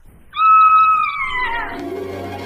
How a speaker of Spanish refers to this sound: Fue entonces cuando de la boca muy roja de la ya gigantesca aparición emergió un grito aterrador.